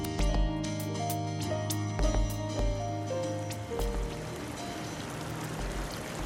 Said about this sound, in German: Also bin ich an den Lech gegangen. Ein wunderbarer wilder Fluss. Und äh, natürlich nicht so großer Strom wie der Rhein, aber es ist Wasser.